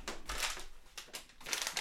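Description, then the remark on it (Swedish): Crisp crinkling of a 40-gram bag of dried reindeer chips, several bursts of crackly rustling in quick succession, fairly quiet with no voices. “Så att jag kommer att äta lite chips. lite Gör så. torkade renchips.”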